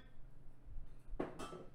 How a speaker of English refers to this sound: Can y'all hear the liquor pouring?